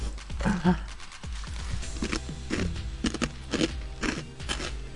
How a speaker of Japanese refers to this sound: 前代未聞ですよじゃがりこ食べてるだけの時間っていうポリポリポリってポテチに比べて音がでかいから